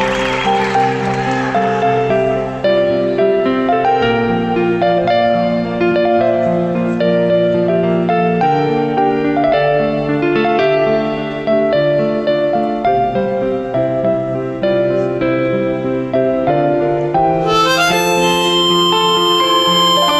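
A rock song plays steadily at a loud level, with sustained melodic notes and chords layered throughout, and a brighter high-pitched part entering near the end. No one speaks.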